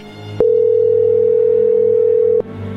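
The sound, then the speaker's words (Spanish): A single steady electronic telephone ring tone sounds for about two seconds as a call is placed again, loud, as if heard through a handset, with faint background hiss before and after. “Márcale de nuevo.”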